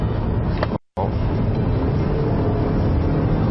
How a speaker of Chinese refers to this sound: 哦，这种情况下，除了它的变速箱确实需要一定的反应时间之外，这个发动机转速升高带来的噪音也有些明显的增加，而且后半程的加速力道怎么说呢？属于那种呃轻盈的。